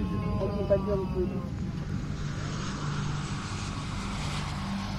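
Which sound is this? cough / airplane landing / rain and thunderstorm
airplane landing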